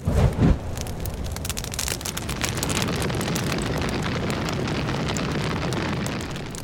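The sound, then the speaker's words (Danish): A large rainforest fire roars steadily with dense crackling and popping over a deep rumbling base, a loud continuous blaze that starts with a brief heavier burst and then holds at an even intensity. “Regnskovene brænder.”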